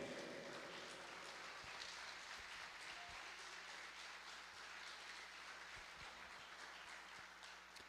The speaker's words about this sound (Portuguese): Aplauda o nome dele.